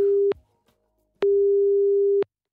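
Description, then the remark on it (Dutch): A telephone ringing tone as a BNR Nieuwsradio host places a call to Thailand: a steady, low single-pitch beep, first a brief tail of one tone, then after a short silence a full one-second tone, with no voices. “Eh, wij gaan even bellen met Ivo.”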